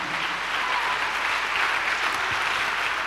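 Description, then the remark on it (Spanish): A church audience applauds for the Lord during a sermon, a dense wash of many hands clapping at an even loudness throughout, with no voices standing out. “Denle un aplauso al Señor, amado hermano.”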